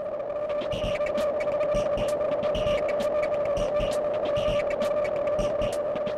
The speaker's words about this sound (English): also added this white noise sound onto the intro.